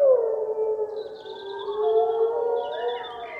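A pack of gray wolves howls together in a forest in long, sliding, overlapping tones, rising and falling around each other in a continuous chorus with no talking, steady in loudness.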